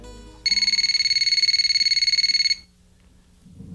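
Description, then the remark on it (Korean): A telephone rings once as a call is placed to a newly changed phone number, a single sustained burst of rapid, trilling electronic tones, high and bright, lasting about two seconds before cutting off into quiet hum. “전 회사 동료에게 연락을 해 그녀의 바뀐 번호를 알아내서 전화를 했습니다.”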